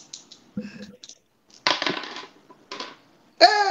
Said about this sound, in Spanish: tira tus dados, y yo voy a tirar los dados de los non-player characters. Pero guarda, tira dos por destreza.